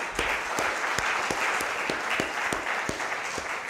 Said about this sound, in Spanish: Dele un aplauso, Señor.